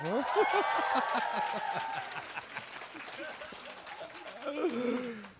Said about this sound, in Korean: 자 얼떨결에 팟캐스트 진행자가 된 강신주 박사님을 박수로 맞이해 주세요.